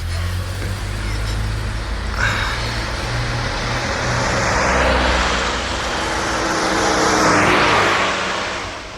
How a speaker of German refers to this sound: Da kommt ein Auto aus der Ausfahrt.